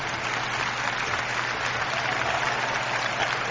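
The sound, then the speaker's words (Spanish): Steady audience applause fills the whole stretch, a dense, even patter of many hands clapping at once with no voices rising above it. “Ahora ya con los aplausites, coñe.”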